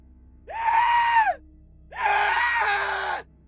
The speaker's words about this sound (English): The old man screamed at the gory sight.